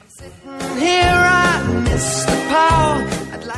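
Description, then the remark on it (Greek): A tomcat yowls twice in loud, drawn-out wails, each cry rising and wavering in pitch before trailing off, with a brief pause between them. “Ε, γάτος που σκούζει και άλλα τώρα”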